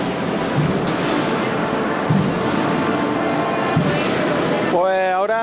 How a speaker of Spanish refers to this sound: Sonidos de campana, de nuevo del trono de las angustias